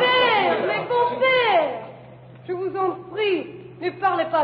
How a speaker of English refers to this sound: The judges are all shouting at once, urging her to sign, to live.